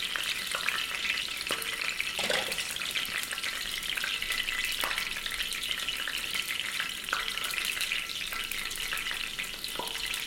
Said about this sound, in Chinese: 要不要听一会儿油声？比较治愈。